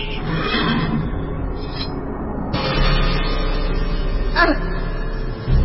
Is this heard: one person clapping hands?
no